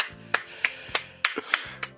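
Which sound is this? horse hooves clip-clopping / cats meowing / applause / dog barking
applause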